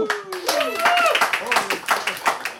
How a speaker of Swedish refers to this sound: Och nu har du med dig en eh, fantastisk kör här bakom. Fountain House-kören. Ångestkören till och med. Yes, en applåd till dem också.